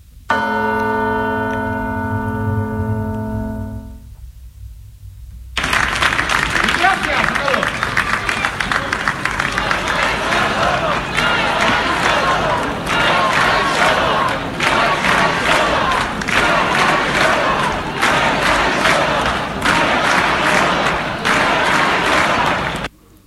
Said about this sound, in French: Vous entendez cette foule ces braves militants qui se sont rassemblés sur une place d'Aranda de Duero en Espagne le 14. Cette foule proteste contre la, contre la condamnation à 38 ans de prison de trois hommes, joueurs de l'équipe de foot de la ville